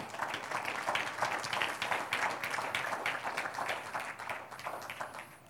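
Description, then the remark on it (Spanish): An audience applauds in praise of the Lord with dense, steady clapping that holds for about five seconds and tapers slightly at the end, with no talking over it. “Un aplauso al Señor.”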